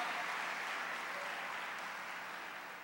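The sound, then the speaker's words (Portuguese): An audience at an evening church service applauds the Lord together in a dense, steady wash of clapping that holds at an even level for about three seconds, easing slightly toward the end, with no voices standing out. “Só quem crê aplauda o Senhor.”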